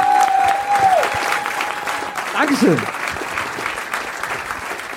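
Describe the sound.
Sustained audience applause fills the whole stretch, a dense steady clatter of many hands, with a brief spoken thank-you and a voice rising over the clapping midway.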